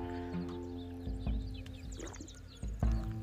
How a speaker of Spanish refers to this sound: Ah, tragote que me eché de agua.